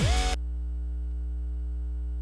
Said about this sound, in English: Way bad line hum there. Anyways, just had to check that out. Don't know where that's coming from, but we'll figure it out in the mix.